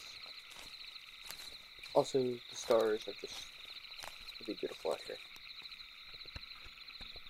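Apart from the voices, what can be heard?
crickets chirping at night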